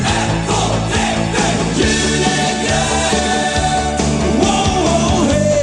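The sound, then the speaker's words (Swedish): A loud, dense Swedish Christmas rock song from a 7-inch single plays at full volume, with driving drums, thick electric guitars and sustained chords filling the whole stretch without a break. “Det här är alltså en singel, en sju, sjutummare.”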